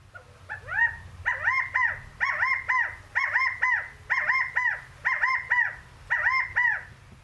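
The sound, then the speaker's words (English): A California quail gives its rally call over and over, a loud, nasal three-note phrase repeated about ten times at a steady pace, with a low rumble of background noise underneath. “Here it is the rally call of the California quail.”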